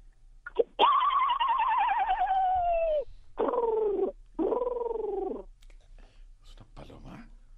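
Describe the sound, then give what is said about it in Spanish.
A person vocally imitates a horse and a dove: a long, quavering whinny-like cry, then two shorter swooping coo-like calls, clear, followed by faint rustling. “¿Es, una paloma arriba de un caballo?”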